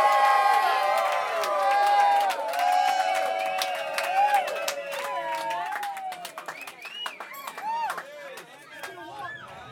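A crowd cheers and applauds, with overlapping whoops and shouts above a steady patter of clapping, loud and sustained before thinning into scattered yells and claps toward the end.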